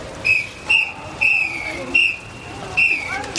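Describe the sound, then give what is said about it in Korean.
A whistle is blown in a steady series of about six short, shrill blasts, fairly loud, over a faint murmur of background noise, by an intermediate-class swimming instructor teaching young children at a swimming pool. “중급반 강사가 호루라기를 불며 어린아이들을 지도하고 있었다.”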